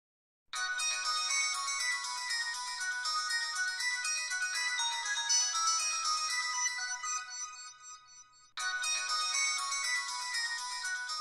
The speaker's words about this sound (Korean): 13분이 지나서야 통화 연결음이 울리기 시작했다. 나는 얼른 초록색 버튼을 눌러 전화를 받았다.